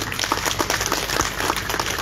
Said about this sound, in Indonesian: Tepuk tangan.